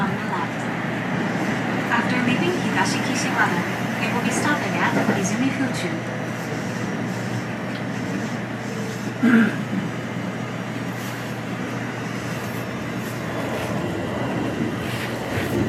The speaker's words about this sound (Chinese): 但我在大阪刚下机往市区转移的路上还是非常怀疑的。我有录下一段列车上的声音，大家不妨可以来感受一下。